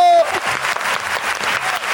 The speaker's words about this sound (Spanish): ¡Aplauso!